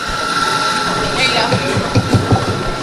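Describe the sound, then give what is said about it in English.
Busy coffee shop ambience at a Saxby's on Temple's main campus: an indistinct murmur of voices over a steady machine hum, with a few soft clunks and clatters toward the end, like cups being set down. “This might sound like any Saxby's where you get your morning latte.”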